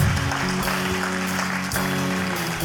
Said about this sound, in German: Kann man das mal einen Applaus geben?